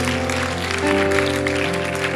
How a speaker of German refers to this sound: Lasst uns Marc, unserem Pastor für Familie, Kinder und Jungen, mal einen mächtigen Applaus geben. Vielen Dank, Marc.